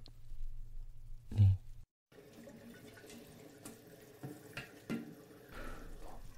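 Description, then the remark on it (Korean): Water runs steadily from a tap as a hairdresser rinses a client's hair at a sink after cutting it, splashing and rinsing, with a brief pause then continuous flowing and occasional louder splashes. No one speaks. “그러면 이제 음, 머리 좀 헹궈드리고 네.”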